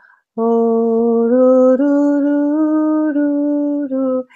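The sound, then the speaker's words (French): A voice imitates church bells ringing with one loud, sustained hummed tone that steps between a few nearby pitches for about four seconds, with no talking around it. “Et quand elle m'a rencontrée, j'ai entendu des cloches d'église sonner.”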